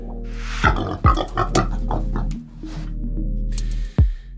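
A pig grunts and oinks in a series of quick, snorty bursts, then a longer rumbling grunt and one last sharp oink. No one speaks.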